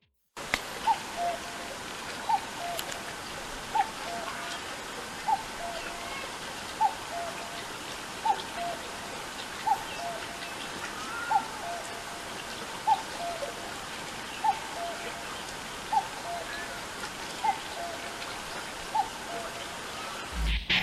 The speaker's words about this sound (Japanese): はい鳴いてますねちゃんと見事に鳥ですねなんか朝昼晩の3食ちゃんと食べてるって感じの健康的な鳴き声でしたね